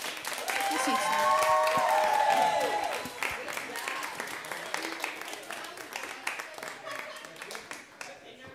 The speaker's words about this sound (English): How about a round of applause for our wise men and our bright stars?